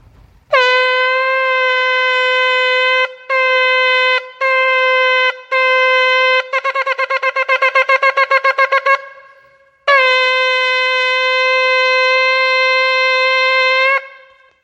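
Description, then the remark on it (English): Loud shofar (ram's horn) blasts, recorded on a phone ahead of Rosh Hashanah, with no talking: a long sustained note, three shorter blasts, a rapid run of quick staccato notes, then a final long held blast. “The sound of the shofar to get us all ready for Rosh Hashanah.”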